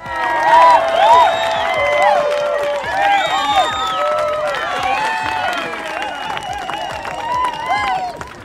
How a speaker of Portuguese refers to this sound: Dá para colocar aquela, aquelas palmas do Chaves ou aquela risadinha enlatada?